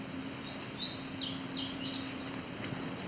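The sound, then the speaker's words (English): A common yellowthroat sings a quick run of repeated high, bright phrases, about four rolling notes in a row, over a faint steady low hum with no talking. “It's the common yellow throat.”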